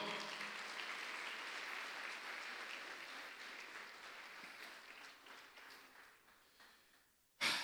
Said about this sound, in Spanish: Dele palmas fuerte al Señor.